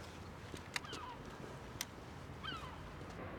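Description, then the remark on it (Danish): Two harsh, descending cries of herring gulls on the roof of an industrial museum ring out over a steady outdoor rumble, separated by about a second and a half, with a couple of sharp, brief clicks in between, as a man shoots at the gulls with a silenced small-calibre rifle. “To måger bliver til en.”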